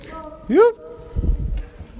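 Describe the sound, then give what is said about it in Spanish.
A single short, rising shout rings out in an empty building as people head to its second floor, its faint echo lingering before some low muffled thumps and rustling follow. “No, no, el eco. Sí se oye.”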